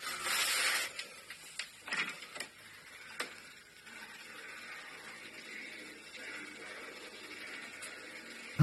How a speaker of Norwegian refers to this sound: Her hører du meg gå ut døra. Det er helt mørkt.